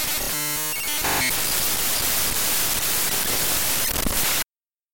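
sound effect, radio static

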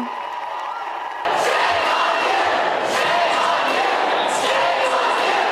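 crowd, crowd of supporters cheering

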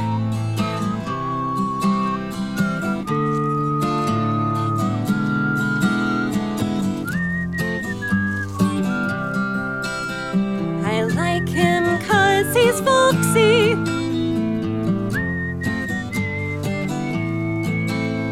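human body sound, person whistling a tune

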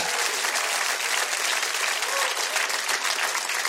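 crowd, audience clapping

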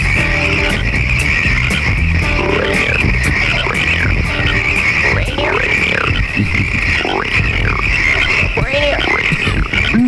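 animal, frogs croaking

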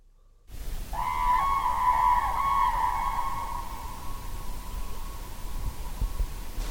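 bird, common crane calling

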